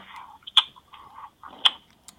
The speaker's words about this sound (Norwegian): Spiser du på noe? Ja.